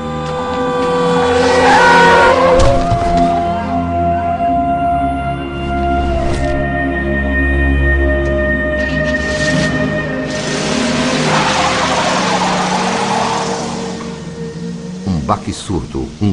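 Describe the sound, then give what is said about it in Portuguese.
Tyres screech loudly as a car skids, then an engine roars and revs away over a low rumble, with a voice talking over parts of it. “Sob as rodas de um carro que nem sequer parou, o começo do fim de um sonho e de uma sonhadora.”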